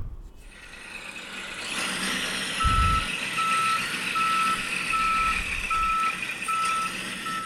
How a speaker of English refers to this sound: All right. Garbage Truck is here.